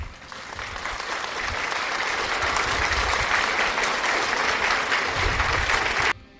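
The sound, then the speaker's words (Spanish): A crowd breaks into steady, sustained applause, dense clapping holding a fairly even loudness for about six seconds before cutting off abruptly. “Muchas felicidades y un fuerte aplauso a ellos.”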